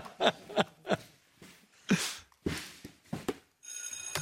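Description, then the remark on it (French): A loud electric school bell, marking the end of recess, starts ringing near the end and keeps on steadily, after a few sharp knocks and bursts of noise. No one speaks. “Voilà, vous avez entendu, c'est la fin de la récré, c'est parti, c'est parti, on va commencer.”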